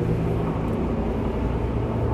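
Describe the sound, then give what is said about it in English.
A loud car rumbles by outside, its deep engine drone filling the whole moment as a steady, heavy low roar with no voices over it. “you got this douchebag in a fucking car and everything.”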